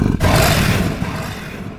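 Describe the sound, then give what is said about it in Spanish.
A tiger's deep, rumbling growl, loud and harsh, rolling out in one sustained breathy burst after a brief pause, then fading slightly as it trails off. No voices. “La bestia jadeó y arrojó su aliento sobre él,”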